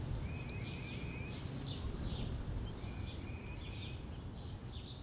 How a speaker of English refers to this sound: I'll play some Tweety Birds for you while you do that.